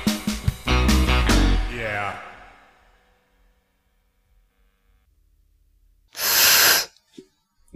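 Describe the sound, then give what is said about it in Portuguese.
A person makes a loud, breathy snake hiss with their mouth, a single burst under a second long. It follows a stretch of voice sounds and a quiet pause. “É que eu fiz um barulho com a boca de cobra e, e, marcou aqui na.”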